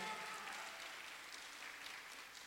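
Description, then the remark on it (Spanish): An audience applauds God steadily for a couple of seconds, a dense, even wash of many hands clapping with no pauses. “Dele el aplauso a Dios esta noche.”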